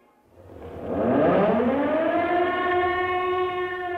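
air raid warning siren

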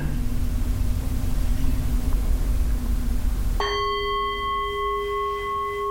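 meditation gong being struck

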